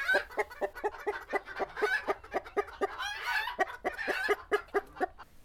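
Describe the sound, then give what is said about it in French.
A farm henhouse full of chickens clucking in quick, repeated bursts, with Ricky, the farm's only rooster, among them, the overlapping calls fairly loud, with no one talking. “Il règne sur le poulailler et tout le monde compte sur lui le matin pour être réveillé.”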